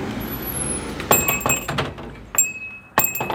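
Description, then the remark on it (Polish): A small old-style shop doorbell, the last of its kind in Zakrzówek, jingles as a wooden shop door opens, bright metallic rings with clunks of the door, repeated a couple of times over low background rumble. “To jeszcze lepszy bajer mamy jak wejdziemy, bo nam zadzwoni dzwonek, tak? Jest jeszcze dzwonek jak w starym sklepie.”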